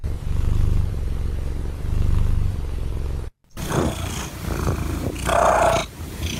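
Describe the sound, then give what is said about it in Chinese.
A cat purrs in a low, steady rumble that swells and eases in slow cycles. After a brief silence, harsher, noisier rasping sounds follow with no talking. “那个那个那个呼噜声，然后你就猜哪里？呼噜声是不是？”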